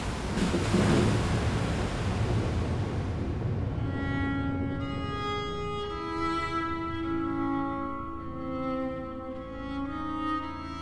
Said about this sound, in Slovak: Štyridsať dní a 40 nocí sa dážď v prúdoch valil na zem vôd neustále pribúdalo, až zodvihli archu a tá sa začala plaviť po nekonečnej vodnej hladine.